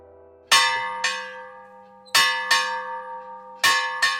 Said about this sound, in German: Für mich läutet er die Glocke. So hat es zur Wikingerzeit geklungen.